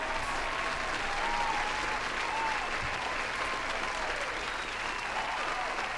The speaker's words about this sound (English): I'll give you another round of applause.